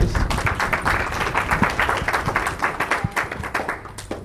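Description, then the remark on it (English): An audience applauds, a dense, steady patter of many hands clapping that keeps up for several seconds at a moderately loud level, with no voices standing out. “Please do not applaud me.”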